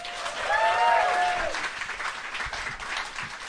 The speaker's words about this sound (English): Round of applause for Alex.